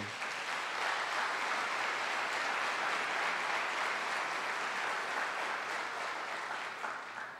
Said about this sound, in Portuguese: Vamos aplaudir pelos irmãos que vieram quinta.